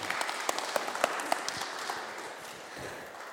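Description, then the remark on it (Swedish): An audience applauds for a speaker about to teach, a dense patter of many hands clapping at steady strength, fading slightly toward the end with no talking. “Ska vi ge honom en applåd också?”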